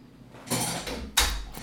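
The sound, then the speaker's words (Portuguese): A door is pushed shut: a brief scraping slide followed by a second louder rush ending in a dull low thump, with no voices. “Deixa eu fechar a porta porque eu acho que tá dando ver o barulho da máquina.”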